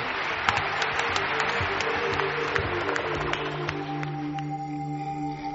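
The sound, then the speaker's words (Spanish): A steady round of applause for Mariano Revilla on a television programme at New Year 2012, many hands clapping in a dense, even wash of sound that stays at a constant loudness, with some faint tonal sounds surfacing as it winds down. “Mariano, nuestro aplauso.”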